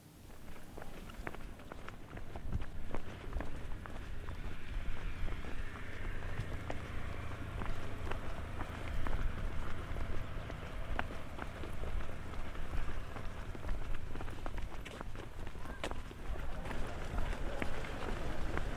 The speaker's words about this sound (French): on a suivi un repérage d'un tunnel très, très sonore et Steven en a fait un petit raccourci d'une minute 16.